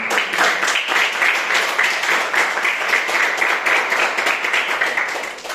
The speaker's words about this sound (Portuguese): As palmas sobre o Senhor.